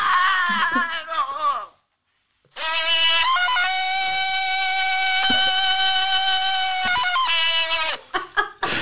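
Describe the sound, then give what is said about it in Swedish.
A shrill, tinny Tarzan yell from a Commodore 64 game: a short wavering cry, a brief silence, then a long, loud sustained call with cracking, yodel-like pitch breaks, heard alone. “Nu ska ni få höra här hur Tarzan liksom låter.”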